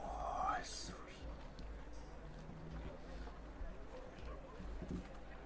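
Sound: eerie whispering voices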